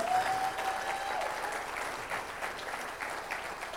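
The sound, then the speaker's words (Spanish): A church audience applauds Christ during worship, a dense wash of many hands clapping at an even level throughout, with a brief faint tone at the start and no voices standing out. “Dele más fuerte ese aplauso a Cristo, hermano.”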